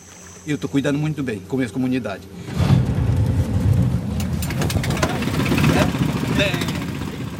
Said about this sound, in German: Iber startet den Motor und steuert das schwer beladene Holzboot flussaufwärts.